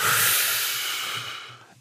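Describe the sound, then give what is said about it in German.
A deep, airy breath in and out, taken during a guided breathing exercise, a steady rushing of air that gradually fades away near the end, with no one speaking. “Atmen Sie tief ein und aus”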